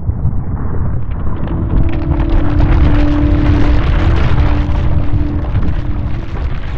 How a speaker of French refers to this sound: La montagne, notre montagne qui dominait le couvent du granier, s'effondrait sur elle-même. La montagne s'écroulait, elle tombait par terre, elle glissait partout et coulait sur tous les villages alentours